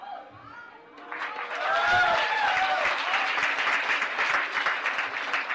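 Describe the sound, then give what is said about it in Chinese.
Dense audience applause in a room swells in after a brief moment of voices and then holds steady and loud, a continuous wash of many clapping hands with a few cheers and whoops rising above it. “如果有足够的渴望，我希望大家把你们的热情，把你们的掌声，一定要把我们的这个房间让它引爆。”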